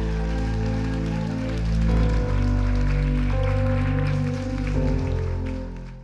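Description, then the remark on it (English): A standing crowd at a church service applauds steadily for several seconds to welcome a pastor, a dense patter of clapping layered over sustained keyboard chords that shift twice before fading slightly at the end. “Stand on your feet and give a round of applause”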